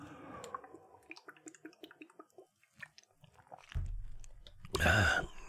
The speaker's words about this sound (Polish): Czekajcie, łyknę wody.